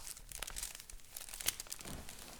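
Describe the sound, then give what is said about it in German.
Dry rustling and crinkling as a piece of paper is rubbed, with irregular scratchy bursts and one sharper crackle midway, continuous for a couple of seconds with no voices. “Und ähm, jetzt reibe ich hier an äh, diesem Stück Papier.”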